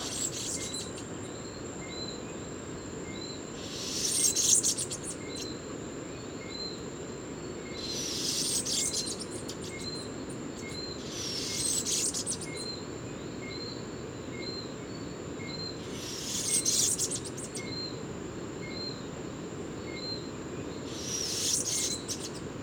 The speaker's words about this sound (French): ce mâle est très enthousiaste. Et l'oiseau chante au sommet d'un arbre, à 5-6 mètres au-dessus de moi.